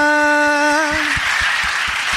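A long, steady pitched tone, like a held note, gives way to a dense wash of audience applause with scattered claps and cheering that carries on loudly to the end.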